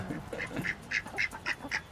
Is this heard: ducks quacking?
yes